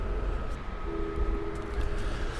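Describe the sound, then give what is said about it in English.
A passenger train rumbles steadily along with a heavy low-end roar as it comes into Fresno over a series of level crossings, while a faint sustained tone hums through the noise. “The train is now coming into Fresno over a whole series of level crossings.”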